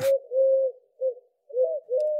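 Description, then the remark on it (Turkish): A turtle dove coos in a series of low, soft, hollow notes, clear, with short pauses between phrases and no one speaking. “Commodore 64 ile başlayan sohbet kumrulara nasıl gelmiş olabilir?”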